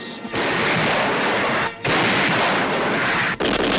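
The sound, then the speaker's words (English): Naval guns at sea fire broadsides at coastal batteries during the Allied invasion of Sicily, in a loud, continuous roar of blasts and rumble, with two brief lulls, and no voices. “Out at sea, broadside after broadside was fired at the coastal batteries.”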